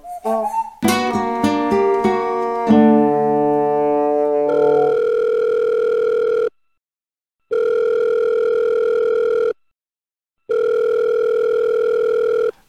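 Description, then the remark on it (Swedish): A quick flurry of dialing beeps and tones, then a steady ringback tone of an outgoing phone call sounding in long, evenly spaced pulses separated by short silences, clear, with no voices. “ringde upp.”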